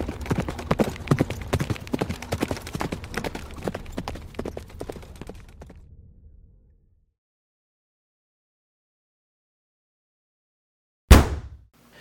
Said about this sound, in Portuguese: Segundos depois, ele estava em cima de seu cavalo, cavalgando a toda velocidade.